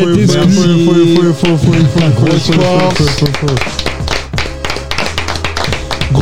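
An audience breaks into loud, steady clapping and cheering after music with a singing voice during a live radio broadcast, the applause building into a dense wash of claps over the last few seconds.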